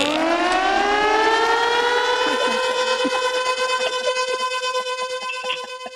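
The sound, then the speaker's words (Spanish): A tornado warning siren wails loudly for several seconds, a rich, buzzing tone that climbs slightly at first, then holds steady with a faint pulsing waver toward the end. “son las alarmas del tornado”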